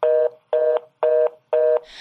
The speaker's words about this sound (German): Wir hatten leider klar, gerade kleine Verbindungsprobleme. Äh, die, unser Telefonat ist abgebrochen. Genau, nach einer Stunde 59 wird jedes Mal das Telefonat unterbrochen.